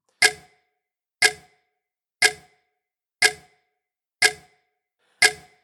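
A clock ticks six times, one loud, sharp tick each second, steady, with silence in between and no voices.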